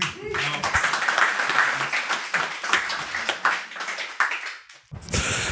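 A live audience bursts into sustained applause, dense overlapping claps filling about five seconds at steady loudness before cutting off abruptly, with a brief burst of noise at the end.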